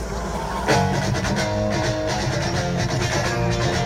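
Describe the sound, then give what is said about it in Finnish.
A live rock band, Foo Fighters with a guest singer invited on stage, plays loudly and continuously, with dense distorted guitars, a steady beat and a full, crowded sound that surges in sharply after a brief lead-in. “Ja … siinä sitten Foo Fightersin kanssa vetää.”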